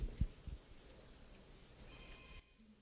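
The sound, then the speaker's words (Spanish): A faint cell phone ringtone chirps with thin, high electronic tones amid a quiet background during a Bible reading, followed by a few soft knocks and rustles, then fades out. “¿Ya apagaron el celular?”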